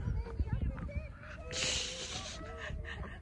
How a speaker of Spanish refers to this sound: aquí también hay patitos. ahí vi un pato. Ahí está el pato nadando.